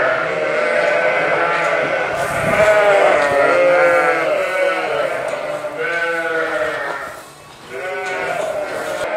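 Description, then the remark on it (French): A flock of ewes bleats loudly and continuously in the evening as they are being fed maize, many overlapping calls forming a dense chorus with no pauses. “maintenant je vais donner le maïs, ce qu'on a montré avant.”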